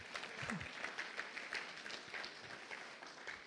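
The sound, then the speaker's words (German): A crowd gives a short burst of applause, many hands clapping densely and steadily at moderate volume for a few seconds, with no one speaking; the audience claps at the speaker's invitation during a talk about resilience. “Wenn ihr wollt, könnt ihr kurz klatschen, wenn das ein gutes Bild ist.”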